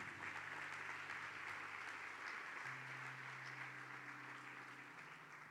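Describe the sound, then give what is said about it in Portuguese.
An audience applauds the Lord after a prayer, a dense wash of clapping from many hands for several seconds, with a low sustained musical tone humming underneath. “Pode aplaudir o Senhor aí mais uma vez.”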